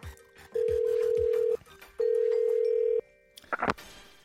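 A telephone rings twice with a call from a man's father-in-law, each ring a steady one-second electronic tone separated by a short pause, clear and fairly loud, followed by a brief clatter at the end.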